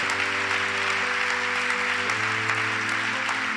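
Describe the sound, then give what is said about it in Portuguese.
An audience applauds Jesus steadily, a dense wash of clapping hands at an even level, with sustained organ or keyboard chords holding underneath and shifting once midway. “Se é para Jesus, faz melhor, se é para mim, não precisa nem aplaudir, irmão.”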